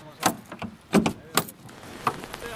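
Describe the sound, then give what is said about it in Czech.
Someone unlocks and opens a tightly locked trailer: a series of sharp metallic clicks and clunks, with jangling keys and a rattling latch, coming at an irregular pace with no talking. “Michala, otevírej. Otvírám, je to pěkně zamknuté.”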